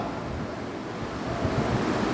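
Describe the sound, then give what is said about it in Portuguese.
Rough sea waves churn and rumble with gusting wind, a dense, continuous roar that swells slightly louder toward the end, with no voices present. “Agora imagine, você em alto mar, uma tempestade.”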